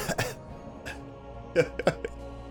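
A person clears their throat in a few short, rough bursts, with brief pauses between the harsh, gravelly rasps.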